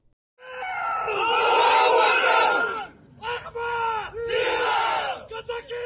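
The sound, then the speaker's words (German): A crowd of pro-Russian separatist fighters in the Donbass cheers and shouts together in loud, sustained roars, breaking off briefly before swelling again in several rousing bursts. “Was Sie hier gerade hören können, sind Jubelrufe prorussischer Separatisten.”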